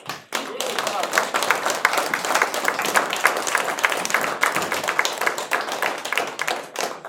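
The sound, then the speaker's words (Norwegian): Sustained audience applause in a hall for politicians, a dense crackle of many hands clapping steadily for about seven seconds at a fairly even, loud level before tapering slightly at the end. “Dere fortjener en skikkelig god applaus.”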